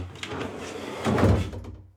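A front door opens or closes with a muffled, low thud and a brief rattle, followed by a short fading rumble; no one speaks.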